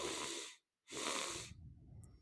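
Two sharp, airy sniffs in quick succession as someone draws a double breath in through the nose as part of a breathing exercise, with a short pause between them and no talking.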